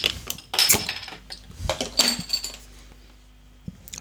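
A bottle of fruit lemonade is pried open with a bottle opener: a few sharp metallic clicks and glassy clinks, then a brief ringing tail and quiet, with no one speaking.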